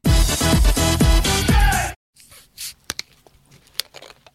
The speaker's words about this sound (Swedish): knäcker en liten höstpepsi, mm. eh, tar den mot munnen, Jajamensan. sänker en klunk